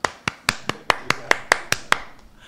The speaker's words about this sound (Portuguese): É uh, palmas!